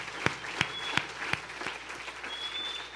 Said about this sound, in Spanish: Y démosle un fuerte aplauso a nuestro buen Dios. Gracias, Señor.